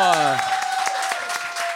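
An audience applauds a musician being introduced, with steady, dense clapping throughout, while a high sustained tone rings over it and lower gliding tones sweep downward at the start.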